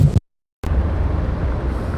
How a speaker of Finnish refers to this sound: No niin, aikamoinen tää liikenteen meteli. Mä oon nyt tässä Mannerheimin tie kahdeksassa.